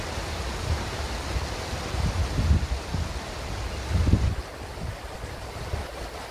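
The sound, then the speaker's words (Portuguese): Gentle waves lap and wash in soft, steady surges, with a couple of slightly fuller swells, under a constant breezy hiss of wind; no one speaks. “Bom, quero nesse momento me despedir de você, deixando você então aqui com essa imagem e com esse barulhinho de água é tão relaxante, não é?”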